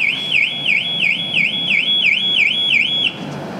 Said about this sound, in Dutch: Zou het dan nog bestaan, auto-alarmen, binnen 20 jaar?